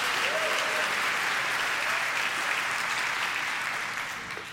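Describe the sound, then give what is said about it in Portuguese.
An audience at a night church service applauds together, a dense steady wash of clapping for several seconds that starts to thin out near the end, with faint voices mixed into the noise. “Pode dar outra salva de palmas, pode celebrar em nome de Jesus.”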